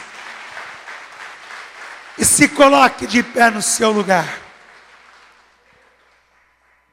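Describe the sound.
A church audience applauds the Lord in a steady, dense patter that continues beneath a man speaking loudly over it, then gradually thins and fades away into near silence.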